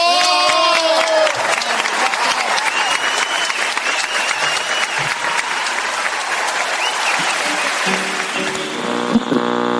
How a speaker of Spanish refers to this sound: Cacho viejo, este aplauso es para vos.